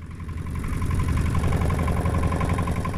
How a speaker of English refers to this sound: I put the boat in gear